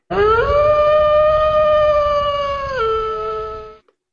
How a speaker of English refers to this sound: That, my friends, is the racism wolf.